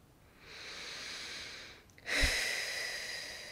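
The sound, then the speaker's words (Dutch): A slow, deep breath drawn in, a brief pause, then a fuller, louder exhale, with no speech. “Even een paar keer een goede ademhaling doen.”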